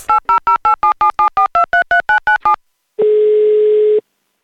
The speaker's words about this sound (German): Schnell zückt er sein Handy und wählt den Notruf.